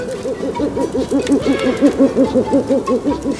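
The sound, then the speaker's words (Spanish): An owl hoots in a quick, steady series of soft, low notes, about a dozen in a row, rising and falling evenly against a faint background hiss, with no voices. “¿Escuchaste eso? ¿Qué fue ese sonido? Fue un búho, tranquilo, no pasará nada.”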